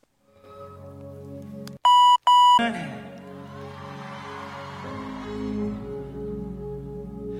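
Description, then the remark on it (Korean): A loud, steady electronic censor beep of about one second cuts sharply into live concert audio, covering a spoken word, then the crowd noise and music continue with a roomy, cheering ambience. “저희가 준비한 어느 콘서트의 한 장면을 듣고 삐 처리가 된 부분에 들어갈 말을 맞춰 주시면 됩니다.”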